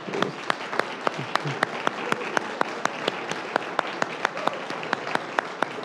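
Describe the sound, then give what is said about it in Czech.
A conference audience applauds the organizers from Kroměříž in thanks, steadily for several seconds, a dense wash of many hands clapping with a few sharper, louder claps standing out at irregular moments, and no talking. “Já vím, že možná v Čechách to tak nebývá běžné, ale pojďme zatleskat kromě říšským za to, že jim poděkujeme.”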